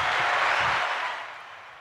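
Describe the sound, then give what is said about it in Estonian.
A short burst of applause from a small group, a dense patter of clapping that quickly thins and fades away within a couple of seconds. “aplaus hea küsimuse eest”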